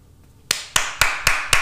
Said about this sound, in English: Round of applause for the boy.